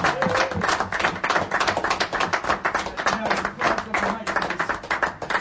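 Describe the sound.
A crowd claps steadily for several seconds, a dense patter of many hands close by, with a few voices murmuring and cheering underneath.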